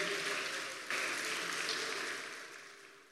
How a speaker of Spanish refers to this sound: Denle un aplauso al Señor, por favor, en esta tarde.